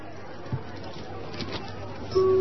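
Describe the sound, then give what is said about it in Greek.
Crowd chatter in a large, busy department store full of shoppers interested in special offers: a steady, murmuring blur of many overlapping voices with no words standing out, ending in a sudden sustained tone. “Ακούστε τώρα τι γίνεται εκεί μέσα στο πλήθος.”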